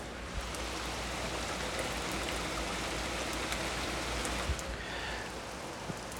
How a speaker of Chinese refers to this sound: 这次的雨下的时间比较长，可能能持续个四五个小时，不大也不小，正合适。呃，你可以听一听。